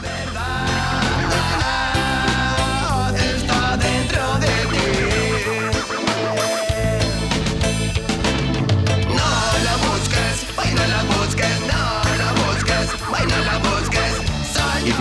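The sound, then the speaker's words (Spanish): A loud, continuous song driven by a heavy bassline, with DJ scratching cutting in over the beat throughout; no one talks over the music. “con ese sonido, ese bajo, ¿eh? y, el DJ por detrás, ¿eh? con el scratch.”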